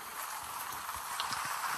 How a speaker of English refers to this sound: Oh, it's raining outside. Oh my goodness.